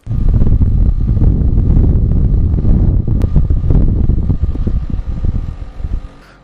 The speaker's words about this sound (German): Sie hören die Klimaanlage.